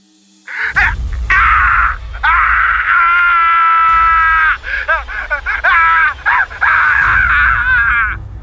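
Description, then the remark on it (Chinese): A loud, harsh, bloodcurdling scream coming through a screen, starting abruptly and holding for several seconds with a wavering, shrill pitch, then breaking into shorter shrieks toward the end. No talking. “下一刻，屏幕那边忽然传来了一阵凄厉无比的惨叫声。”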